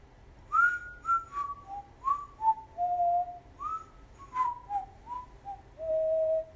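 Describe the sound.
A person whistles a casual, wandering tune, short sliding notes rising and falling in an easy rhythm, ending on one longer held note over a faint low hum.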